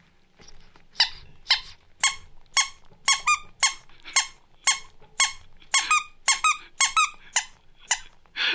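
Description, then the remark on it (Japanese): A simple CPR training kit gives out a steady run of short, squeaky chirping beeps, about two per second, fairly loud, keeping a chest-compression rhythm of about 100 to 120 compressions per minute, with no talking. “可愛い音がピーピーピーピー言ってますけど。そうなんです。何ですか。えっ、ー、と胸骨圧迫のリズムなんですけれども、うん、あの皆さん先ほど申したように大きいえっ、ー、と人形を使うんじゃなくて、うん、簡易キットを使って、はい、えっ、ー、と体現するんですけれども”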